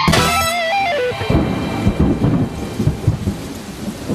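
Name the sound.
rainstorm with thunder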